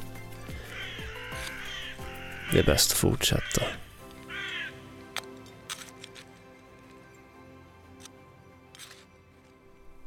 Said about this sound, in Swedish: när ett gäng fåglar tycks flyga ifrån någonting. Som de alltid gör i och för sig.